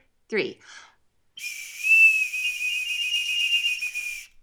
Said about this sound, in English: Are you ready? Should we shall shall we do shall we blow our wiener whistles together? Indeed, we're going to deafen our entire audience now. You ready? We won't blow it loud.